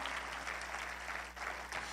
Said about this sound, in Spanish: Dale un aplauso a Él en esta mañana.